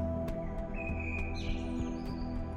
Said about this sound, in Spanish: Los pájaros cantan para anunciar su soledad y encontrar a otros.